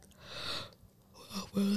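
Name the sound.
person yawning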